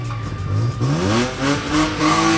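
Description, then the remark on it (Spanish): A rally car engine revs hard and climbs through the gears as it accelerates away from the start line of the hill climb up to Saleta, the rising whine loud, with tyre noise underneath and no talking. “Que toma la salida ya, segundos eh, has consumido el tiempo de espera, la cuenta atrás la has consumido,”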